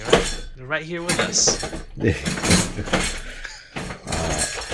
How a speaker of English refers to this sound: well, for the folks at home, that's my dog. He likes to flip over his food bowl and then eat the kibble off the floor.